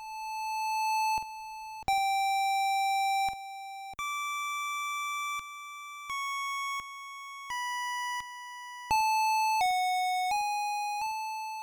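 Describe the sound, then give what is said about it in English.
A single slowed-down, isolated chiptune voice with a lingering echo plays alone, a slow melody of about a dozen sustained, buzzy electronic tones that step up and down in pitch, fairly loud and steady with no talking. “Um, so let's listen again to one of those voices isolated and slowed down so you can hear it uh, a bit more clearly.”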